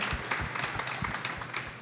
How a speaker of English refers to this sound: Clap it up for that, guys.